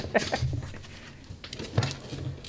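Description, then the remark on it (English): A few short, rubbery squeaks from a squeaky toy played with by a little black pit bull, two quick ones close together, then another after a pause, fairly quiet against a faint background. “sorry, my dog is squeaking.”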